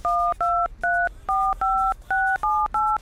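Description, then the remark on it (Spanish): A phone number left on a table is punched in on a touch-tone keypad to call and order cilantro: eight crisp, two-pitched beeps in a steady, quick rhythm, each short and clear, with brief gaps between them and no talking. “Ahí en la mesa te dejé el número. Anda, llama.”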